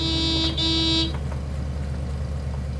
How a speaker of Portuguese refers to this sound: O homem que o dirige estaciona, buzina e espera.